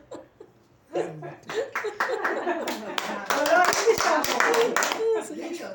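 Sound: clapping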